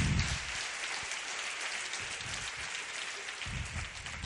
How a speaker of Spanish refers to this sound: Os pido un aplauso para mi compañera